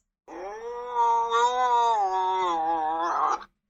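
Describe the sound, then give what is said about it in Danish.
A wildcat lets out one long, drawn-out yowl lasting about three seconds, loud and harmonically rich, holding a fairly steady pitch with slight wavering before ending in a rougher, strained burst. “Øhm, hvordan siger en vildkat? Det her er en vildkat.”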